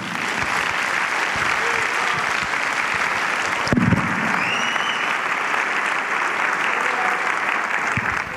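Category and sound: crowd, audience applauding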